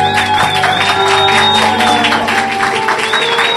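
A crowd applauds steadily as a live set is announced, with dense, continuous clapping, and a few whoops and cheers rise above it, while sustained tones hum underneath throughout.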